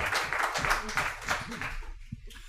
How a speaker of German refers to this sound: Das mit dem Applaus klappt schon mal sehr gut.